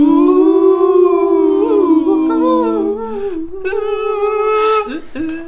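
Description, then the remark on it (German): A loud wolf howl, one long sustained cry of about five seconds whose pitch wavers and slides, heard alone with no talking over it. “Dann kommt jetzt, Achtung, der Spoiler Wolf für Blair Witch neu.”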